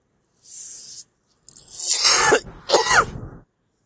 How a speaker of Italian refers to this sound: È venuta una tosse spaziale e con le costole inclinate tossire fa un male cane che non auguro a nessuno.